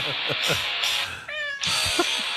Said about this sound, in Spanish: En el 04 hay un gatito que canta … de ….